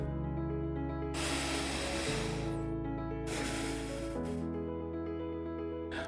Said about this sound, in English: Now, let's take another deep breath.